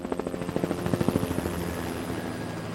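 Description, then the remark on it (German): A navy helicopter supporting sea rescue crews in Cuxhaven flies overhead, its rotor blades thumping in a fast, steady rhythm that is loud at first and then eases slightly as it passes, with a low engine hum underneath. “Der Hubschrauber kann als Vorhut schnell am Einsatzort sein”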